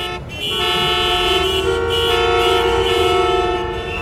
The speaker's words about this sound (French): C'est alors une région tout entière qui se retrouve figée dans un bruit de klaxons et de moteurs tournant à vide.